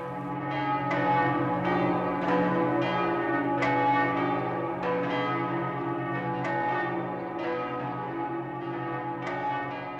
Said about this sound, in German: Glocken läuten, kann das vielerlei bedeuten. Erstens, dass ein Festtag ist. Dann, dass du geboren bist. Drittens, dass dich jemand liebt. Viertens, dass dich's nicht mehr gibt. Kurz und gut, das Glockenläuten hat nur wenig zu bedeuten.